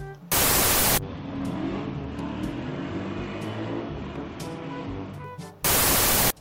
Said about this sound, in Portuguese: Pera só um minutinho que tá passando o caminhão do lixo fazendo uma barulheira aqui.